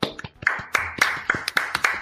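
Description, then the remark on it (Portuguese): A short burst of clapping, with sharp, quick hand claps in an irregular rhythm over about two seconds, fairly loud and with no voices. “então eu queria pedir uma salva de palmas para ele.”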